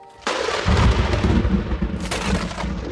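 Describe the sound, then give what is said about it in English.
A loud thunder crack bursts in suddenly, then rolls into a deep sustained rumble, with a second sharp crackle partway through before the roar slowly fades. “Lightning ripped through the inky clouds above them, fatter raindrops fell now”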